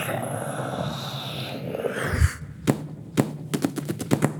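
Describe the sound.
Children voice a homemade spaceship of old scrap metal, launched into the air, failing and crashing back down: a rough, whooshing vocal swoop, then a low thump and a quick run of sharp clattering clicks, moderately loud.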